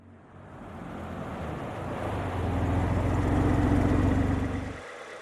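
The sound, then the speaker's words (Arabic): A low, rumbling engine grows steadily louder over a bed of broad noise as a black car approaches a traffic checkpoint, then the sound cuts off abruptly. No voices are heard. “في تلك اللحظة رأت السيارة السوداء تقترب من النقطة المرورية مجددا.”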